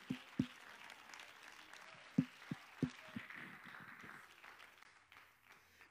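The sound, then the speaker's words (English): A church audience claps their hands unto the Lord in steady applause during a 2021 sermon, a dense wash of patter punctuated by several sharper, louder claps, the whole fairly soft, with no one talking. “If you're thankful, you ought to clap your hands unto the Lord.”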